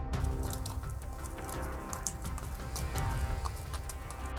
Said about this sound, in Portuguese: Passado alguns instantes, a julgar pelos ruídos, começou a caminhar lentamente, trotando como se fosse um cavalo.